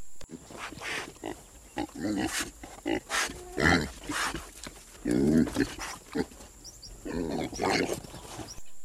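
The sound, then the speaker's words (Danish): A series of rough, guttural grunts and snorts from a warthog, coming in irregular bursts over several seconds, loud with some squealing tones. “Og så synes jeg altså heller ikke, at jeg kan være bekendt og snyde jer for også lige at høre, hvad sådan et vortesvin her egentlig øh, siger. For det er altså også nogle lidt sjove lyde.”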